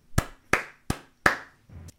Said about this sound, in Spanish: Un aplauso para el cerebro.